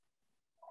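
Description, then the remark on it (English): Near-silence, then a phone's electronic ring tone bursts in at the very end, a brief, steady, fairly soft tone with no talking; an incoming call from a telemarketer that goes unanswered. “that's my phone ringing, but I'm not answering it, of course.”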